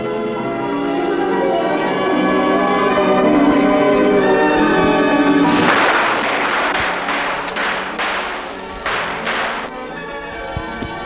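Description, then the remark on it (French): A volley of sharp gunshots, roughly seven or eight close together, bursts out after a sustained ringing tone and ends abruptly. No one speaks. “ouvre la porte après des coups de feu.”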